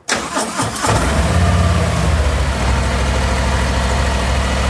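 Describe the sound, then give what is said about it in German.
The engine of a brand-new, completely unmodified stock vehicle cranks briefly, then catches and settles into a steady, rumbling idle, with no one speaking. “Das ist ein absolutes Originalfahrzeug. Das heißt also, da ist gar nichts dran verändert.”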